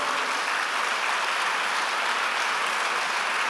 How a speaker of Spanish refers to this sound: Oh, sí, dale fuertes aplausos al Señor.